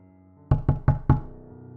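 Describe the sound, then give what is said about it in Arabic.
Four heavy, resonant thuds land in quick even succession, heavy footsteps climbing the entrance stairs, like weighty footsteps pounding up wooden stairs. They sound loud over a quiet low hum, with no one speaking. “أصوات خطوات تقيلة بتطلع سلم المدخل”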